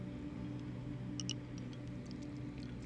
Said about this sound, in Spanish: Me tomo un poco de agua.